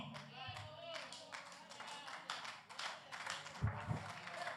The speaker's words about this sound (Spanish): Si ese aplauso es para mí, está bueno, pero si es para Dios, tiene y déselo con fuerza, por favor.